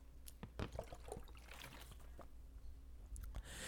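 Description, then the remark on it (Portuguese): Quiet liquid sounds as someone drinks water: water being poured or sipped, with small splashes, clicks and gurgles scattered over a few seconds and a soft low hum underneath. No one speaks. “Deixa eu tomar água aqui.”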